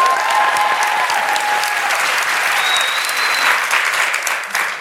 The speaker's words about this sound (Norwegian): I den aller første livepoden fra Høgskolen i Molde eh, håper vi kan ta én applaus til, sånn at vi får det inn.